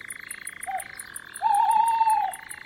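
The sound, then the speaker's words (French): A dense chorus of frogs croaks steadily at dusk, with rapid high insect-like chirps pulsing overhead and one louder, drawn-out call rising midway through. No one speaks. “La plonge des grenouilles ajoute une dimension à la profondeur du soir.”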